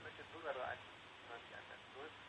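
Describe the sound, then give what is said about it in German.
Faint, muffled voices of a caller from Cologne come through a thin, phone-line sound, echoing back in a few short, smeared bursts over a steady low hiss. “Wir hören uns sogar noch im Echo.”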